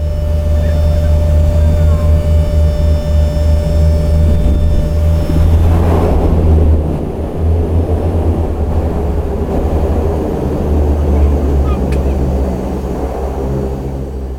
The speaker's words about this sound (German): Unser Flug dauert nicht ganz eine halbe Stunde und wir landen dann auf dem Wasser, logischerweise, in so einem Bereich neben unserer Hotelinsel.